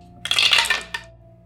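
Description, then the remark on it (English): Dice clatter briefly across a hard tabletop in a quick burst of rattling clicks, with one last small click as they settle, with no voices. “Roll your luck.”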